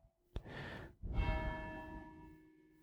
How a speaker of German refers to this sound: Das sind äh, meine Glocken, ja. Ist echt schön. Was habe ich dieses Glockenläuten vermisst, als hier nach der Flut auch kein Strom äh, in der Kirche war lange kein Strom, es hat lange nicht geläutet.